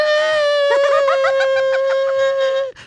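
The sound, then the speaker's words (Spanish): A voice imitates high, sustained crying, a steady whimpering wail with a wavering, sobbing quiver, loud, cutting off abruptly near the end. “me llega … esta mañana llorando”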